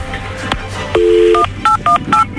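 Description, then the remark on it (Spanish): A telephone number being dialed: one longer two-note tone, then a quick run of short, steady touch-tone beeps at slightly different pitches, played over a faint background hum with no talking. “no hablen, voy a marcarle a Ramón.”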